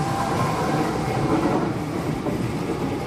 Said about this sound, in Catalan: Som aquí a Sant Boi, hem vingut amb els ferrocarrils de la Generalitat, ara se'n va el tren.